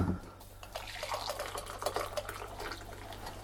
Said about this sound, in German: Kaffee drüber und dann noch die aufgeschäumte Milch.